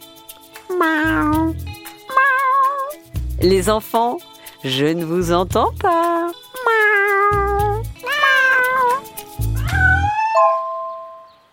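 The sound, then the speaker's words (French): Several people imitate cats with a series of drawn-out, wavering meows while hollowing their backs in a cat-pose stretch, loud over a steady thumping beat, with an adult briefly speaking between them. “Puis on creuse son dos. Miaou miaou.”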